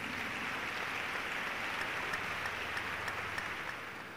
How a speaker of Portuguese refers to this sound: Uma salva de palmas para Jesus.